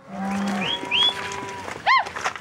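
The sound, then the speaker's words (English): Several cattle moo at a counting gate, where cows are sorted by ranch from their brands or ear tags, over a busy outdoor background: a long low bellow first, then higher rising calls, and a short loud moo near the end. “It's Jamie Burgess's job to read brands or ear tags and call out which cows belong to which ranch.”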